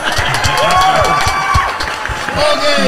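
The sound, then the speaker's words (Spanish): A burst of crowd applause, dense rapid clapping that stays loud for the full few seconds, mixed with cheering, whoops and overlapping voices. “Eso se merece un aplauso. ¡Aplaude, carajo!”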